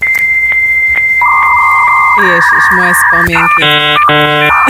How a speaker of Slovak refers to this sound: isto si pamätáte, že keď ste sa chceli cez e, modem dostať do online sveta, tak to no. trvalo dlho a znelo to nejako takto.